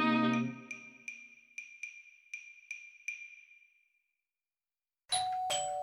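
household object, doorbell ding-dong

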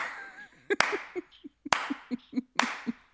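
human body sound, hands clapping

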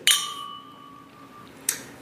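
household object, wine glasses clinking

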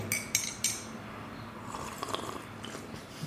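food or drink, slurping coffee

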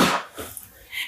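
human body sound, sneeze

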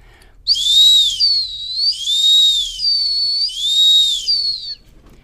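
signal or alarm, dog training whistle signal

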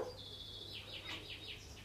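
animal, cat chattering

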